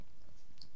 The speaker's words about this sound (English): I just want to say that isn't me. That is the cat licking me. I do apologise. I'm not just randomly making slurping noises in the background.